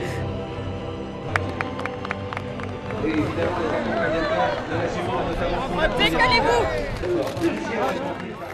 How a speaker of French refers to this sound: Les flashs des photographes, les acclamations du public, le jockey vainqueur Jean-Michel Bazir se ferait un chemin dans la foule pour recevoir son trophée sur le podium.